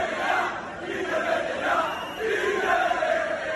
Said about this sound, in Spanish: Los gritos contra Peter Lee, la afición Rafa Villarejo ya no aguanta más. Sí, pañolada, la afición cargó con los jugadores